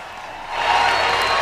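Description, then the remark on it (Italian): Audience applause, a dense steady patter of many hands clapping that swells louder partway through and holds at a full, even level with no voices over it. “mentre scorrono eh, gli applausi.”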